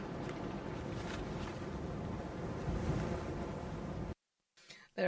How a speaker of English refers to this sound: Yeah, and the wind. I was yeah. listening to the wind through the whole thing, actually.